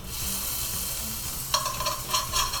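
A sea bream fillet being pan-fried sizzles steadily in hot oil, a dense crackling hiss that stays fairly even, then scraping stirs and clatters from a utensil join in during the last second, with no talking. The fillet is breaking apart into fish floss.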